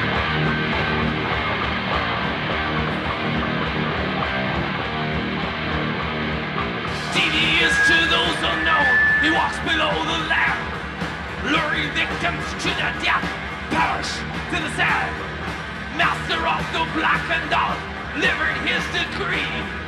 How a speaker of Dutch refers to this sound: Van het concert van … in Scum zijn illegaal opnames gemaakt. Er stond iemand met een cassettedek achter in de zaal.